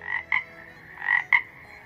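toads croaking

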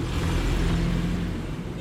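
car driving

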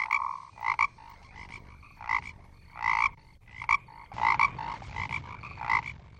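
toad croaking

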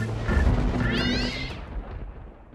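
cat meowing

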